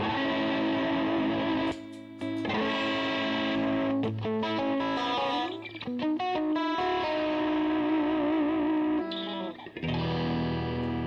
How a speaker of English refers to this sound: You can listen to the, the guitars.